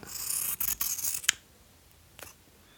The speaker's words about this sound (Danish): Altså, skal vi prøve også at klippe i øhm, de to silker? Ja, fald? lad os gøre det. Prøv at høre her.